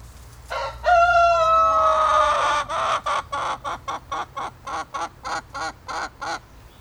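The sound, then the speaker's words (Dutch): A rooster crows loudly, a long rising call, followed by a rapid series of about a dozen short, evenly spaced clucks from chickens at a self-harvest vegetable garden. No one speaks. “De kippen ook nog.”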